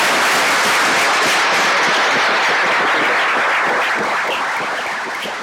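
Sustained audience applause, a dense crackle of many hands clapping at a steady loud level that tapers slightly toward the end, with no voices over it.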